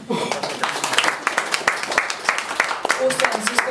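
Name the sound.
audience applause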